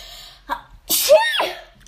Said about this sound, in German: Gesundheit. Halt ein, danke, du bist die Einzige, die das macht.